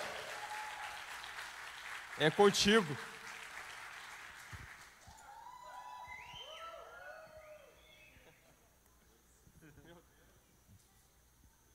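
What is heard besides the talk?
audience applause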